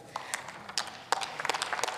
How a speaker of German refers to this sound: Da klatscht die SPD und die ganze Fraktion, das finde ich gut, und die ganze Fortschrittskoalition.